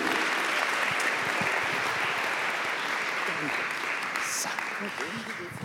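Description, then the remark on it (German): Steady, sustained applause from an audience as a woman is called to the front, a dense crackle of many hands clapping at an even loudness for several seconds, with a few voices faintly mixed in. “Wir können dir einen Applaus geben.”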